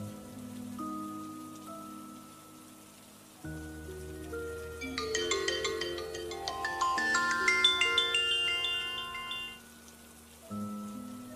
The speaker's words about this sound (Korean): 전날 밤에 일어난 일 때문인지 심신이 지쳐있던 나는 전혀 벨소리를 느끼지 못하고 깊은 수면에 빠져 있었다. 한동안 벨소리가 여러 차례 울렸었고 억지로 눈을 뜨게 되었다. 잠이 덜 깬 상태로 핸드폰을 쥐고 발신자를 보자 잠이 확 달아났다.